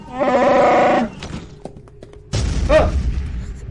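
A loud, harmonic growl from Chewbacca, a brief pause, then a heavy crash as the door is forced down, followed by a sustained low rumble and a rising mechanical whine.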